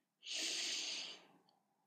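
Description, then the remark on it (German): A single deep, steady inhalation through the nose, taken as deep as possible in a breathing exercise, fairly loud, lasting about a second with a breathy hiss before fading into near silence. “Deshalb atme so tief du kannst ein”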